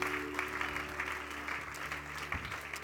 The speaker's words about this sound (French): Juste donner une bonne main d'applaudissement à Jésus qui agit encore aujourd'hui.